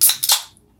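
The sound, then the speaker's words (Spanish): A beer being opened live during an Instagram broadcast: a sharp crack followed by a second hissing burst, both bright and loud, fading out within half a second into silence. No talking. “Y pues bueno, ya me puse un poquito nervioso, por eso voy a abrir la cerveza en vivo.”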